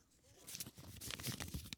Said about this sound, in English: Tell me when to stop, and then I'll pull out a piece of paper.